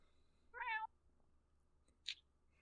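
A female cat named Miss Bilbo gives a clear meow, followed a moment later by a shorter, higher-pitched mew, with only faint background hum otherwise.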